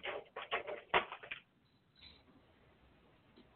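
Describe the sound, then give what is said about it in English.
A quick burst of rattling, clattering knocks as Lakota, a dog, flings his kennel door with his paw, lasting about a second and a half before fading into quiet background noise. “Lakota's flinging his door with his paw.”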